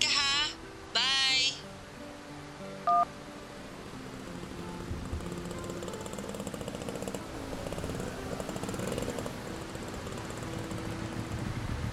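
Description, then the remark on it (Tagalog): A motorized tricycle engine rumbles closer and settles into a steady, rattling idle, loud, after a couple of brief high chirps and a short beep at the start, in heavy rain. “Sakay ka na dito sa tricycle ko.”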